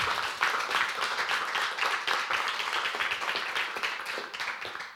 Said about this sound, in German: Ich würde sagen, ganz herzlichen Dank dir. Dank. Einen kleinen Applaus würde ich sagen. Dankeschön.